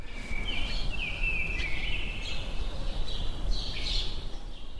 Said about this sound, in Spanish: Voy a probar a abrir la ventana para, que escuchéis esto. Esto es Malasaña. Es, seguramente uno de los barrios más ruidosos de Madrid y hoy, bueno, pues prácticamente nada. Los pájaros.